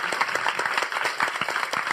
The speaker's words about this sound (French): On peut les applaudir encore une fois.